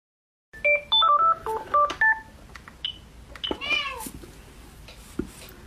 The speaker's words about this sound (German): die Katzen.